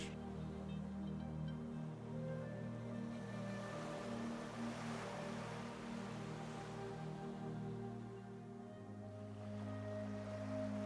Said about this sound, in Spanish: Estás caminando por la arena blanca y es tan suave y cálida bajo tus pies, escuchando pequeñas olas como golpean la orilla del mar.